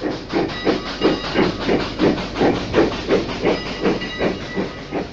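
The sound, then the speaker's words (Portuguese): An original 1976 recording of a steam locomotive arriving at a cement factory in Perus, São Paulo, Brazil: it chuffs steadily in a quick, even rhythm of about three beats per second, each puff wrapped in broad hissing steam, loud with no voices. “Esse som que você está ouvindo é uma gravação original de uma Maria Fumaça chegando numa fábrica bem importante.”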